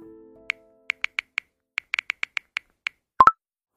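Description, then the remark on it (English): A fading low tone, then about a dozen soft, quick phone tapping clicks at an uneven pace as someone shares a link on a phone, ending in a short two-note phone notification blip. Fairly quiet, with no talking. “was that you with your phone?”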